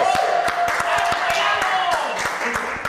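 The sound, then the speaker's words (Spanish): A crowd at a gathering bursts into steady applause, many hands clapping in a dense, continuous patter, with voices and cheering mixed underneath throughout, applauding to thank the friends of Guayabo Monterrey. “Por favor, el aplauso.”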